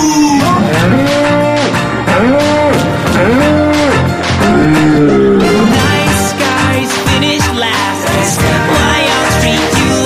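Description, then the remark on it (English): A cow moos several times in a row, each call long and drawn out with a rising then falling pitch, set against loud, busy music with a steady beat. “Wait, let me speak your language Cows go moo”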